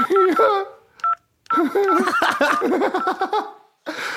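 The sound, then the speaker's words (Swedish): A voice imitates the beeping tones of pressing buttons on a phone keypad with a quick run of notes, broken by laughter, fairly loud, with short pauses between bursts. “Förlåt, man trycker på knappar på telefonen bara så man hör bara typ så här ljud, du vet.”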